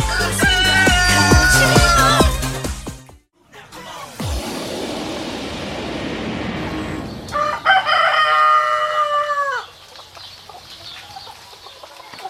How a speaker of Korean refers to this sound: 자, 푸른 잔디와 숲이 우거진 엄청난 규모의 땅에 닭들을 풀어놓고 키우는 아주 친환경 닭농장. 여기서 달걀 수거하는 농장 체험 해볼게요.